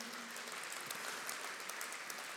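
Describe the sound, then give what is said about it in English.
A crowd at a church service claps together for the Lord in a steady, dense wash of applause, many hands blending into continuous noise at an even loudness throughout, with no voices standing out. “Well, come on, let's give the Lord one more hand clap tonight.”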